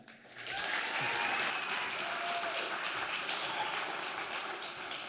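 A crowd breaks into steady applause to welcome a speaker, swelling quickly and holding at a strong, even level for several seconds, a dense wash of many hands clapping together.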